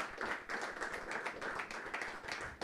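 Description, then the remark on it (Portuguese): An audience at a church service breaks into a sustained round of applause for the Lord, many hands clapping in a dense, steady wash of bright claps with no voices standing out. “Dê mais uma salva de palmas ao Senhor.”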